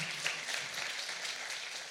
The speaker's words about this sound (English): So if you were if you were at Learn Today, anybody from Learn, Learn Today? Learn Today, give them a round of applause too. Whoa.